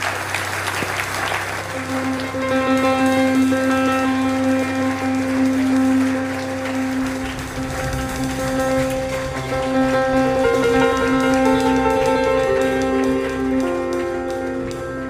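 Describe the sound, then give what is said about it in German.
An audience at the Bernhard Theater applauds Sepp Blatter steadily for about fifteen seconds, a dense, continuous wash of clapping heard together with sustained music playing throughout. “Herzlichen Applaus, Sepp Blatter.”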